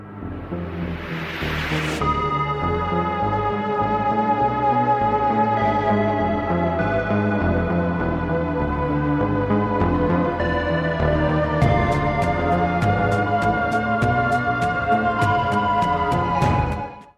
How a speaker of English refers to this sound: And then the panic layer starts to come in, and that's the dark bass sound and the percussion and some other synths that are a lot more intense sounding. Okay, so that sounds like this.